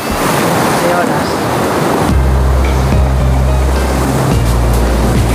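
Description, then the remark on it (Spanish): Loud surf and crashing waves roar continuously, joined midway by a low steady engine drone like a boat motor, with wind buffeting the microphone throughout. “¿A dónde, a, a que suena así como como ruido de agua.”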